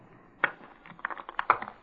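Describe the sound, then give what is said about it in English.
A woman's makeup kit in a dressing room is opened and rummaged through: a quick run of light clicks and clatters as small cases and items knock together, fairly quiet, with no talking. “Uh, do you mind if I open this kit?”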